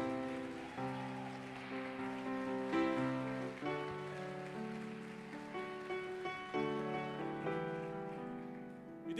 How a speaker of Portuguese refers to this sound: Aplauda mais forte, igreja.